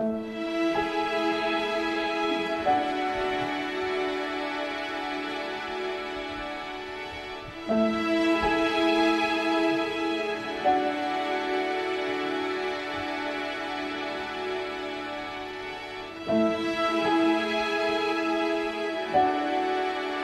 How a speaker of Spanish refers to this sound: cantando el segundo movimiento lento, el largo, tranquilísimo